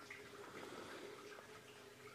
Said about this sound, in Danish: Hvis det plasker sådan lidt i baggrunden, nogle små klukkelyde, så er det altså akvarierne, der plasker i baggrunden.